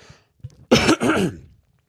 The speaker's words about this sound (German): Und äh, Entschuldigung, ich darf mal kurz husten.